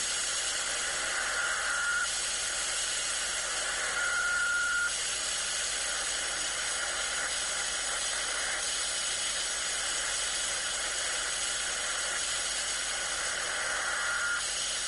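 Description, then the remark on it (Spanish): Perseid meteor shower radio echoes on a software-defined radio: steady static hiss broken by three brief whistling pings, one short, one longer, and a last one near the end. “Pues así suenan las estrellas fugaces en el SDR.”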